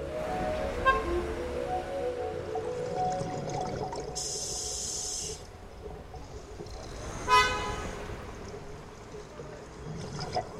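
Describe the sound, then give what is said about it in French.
Car horns honk amid a dense rumble of city traffic in Yerevan, a sustained blare in the middle and another sharp honk a few seconds later, with engine noise filling the background throughout. “Je suis en même temps très loin et trop près des klaxons.”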